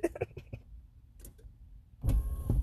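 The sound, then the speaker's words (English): A few soft clicks and rustles, a quiet pause, then a car's power window motor whirs on loudly, grinding steadily as the window rolls up, in a parking lot. “Buddy, you're gonna have to roll up your window so I can continue to talk shit.”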